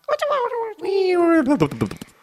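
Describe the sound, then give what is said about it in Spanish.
A voice imitates the cute sound a robot makes when it falls in a mobile game: squeaky, descending whines that slide lower, ending in a quick run of choppy little bursts, fairly loud. “Porque los robots, la verdad, aunque, aunque mueras, los robots hacen un ruido muy mono al caer.”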